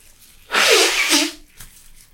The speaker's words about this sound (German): Achtung, ich muss mir einmal kurz die Nase putzen. Putz dir einmal die Nase.